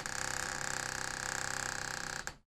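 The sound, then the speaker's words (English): An old door creaks open with a long, raspy groan made of rapid stuttering ticks, steady for about two seconds before cutting off abruptly. No voices. “Suddenly, a click echoed throughout the room. The old door slowly creaked open”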